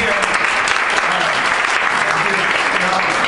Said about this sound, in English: It is awesome to be here at Rooster T Feathers. This is a real comedy joint. This is not a coffee shop. This is not an open mic at a shitty bar. This is awesome. Round of applause for Rooster T Feathers.